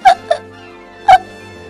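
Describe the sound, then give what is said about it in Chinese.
A voice imitates the hiccups of Hanna, a hippo in a children's story, as she tries to eat a blackberry muffin: three sharp, voiced 'hic' sounds, two loud ones framing a softer one, with a short pause after the second and a low steady hum underneath. “哦不， 汉娜难过极了，我我打嗝了， 呃，打嗝的时候我就没法吃黑木莓松糕了，哎，这可太糟糕了”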